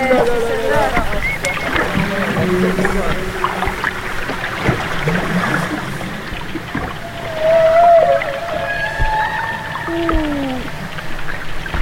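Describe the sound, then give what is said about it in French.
Humpback whale song: long, sliding tonal moans and rising whoops, with a short low grunt, layered over a steady low rumble of water and engine noise. “belle vocalise et petit grognement juste avant.”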